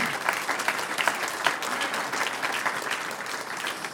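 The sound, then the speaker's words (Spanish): An audience applauds for the Lord, many hands clapping in a dense, continuous patter with scattered sharper claps standing out, sustained at an even loudness for several seconds with no talking. “Un aplauso al Señor.”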